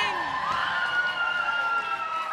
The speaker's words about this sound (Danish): Der bliver jublet, og folk er glade. Jeg er sikker på, at I kan høre den euforiske stemning, der er lige nu